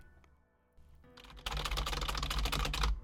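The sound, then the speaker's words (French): A few faint taps, then a fast burst of computer keyboard typing: dense, rapid key clicks, fairly loud, running for over a second before stopping abruptly. “Le bruit de vos touches de clavier.”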